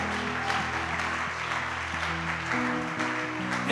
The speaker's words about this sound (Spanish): ¿Por qué le das un aplauso al Señor por eso?